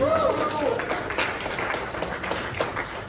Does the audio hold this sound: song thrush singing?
no